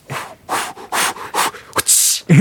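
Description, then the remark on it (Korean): A voice imitates a whip as a party trick, the second part of a three-sound combo after a ketchup-bottle sound, with a few breathy, huffing bursts building to a sharp, hissing crack near the end. Fairly loud, with no talking. “일단 쓰리 콤보라고 있는데 빈 케찹 통에 남은 케찹 소리와 채찍 소리.”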